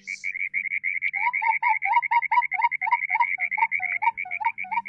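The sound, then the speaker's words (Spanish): An Atacama toad calls in a rapid, steady train of short pulsed notes, joined partway through by a second lower, rhythmic call, fairly loud with no voices. “La, la voz de alerta, mira como del sapo de Atacama.”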